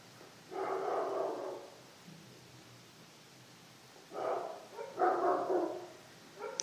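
Dogs bark in a few bursts: a long stretch of barking, a pause of near quiet, then two more clustered rounds against a faint hiss.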